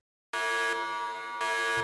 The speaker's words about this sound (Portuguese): Se ainda assim tu tá na dúvida, não te importa de tomar uma espadada de prata com spoiler no meio da tua fuça, fica aí depois do sininho aí do alerta.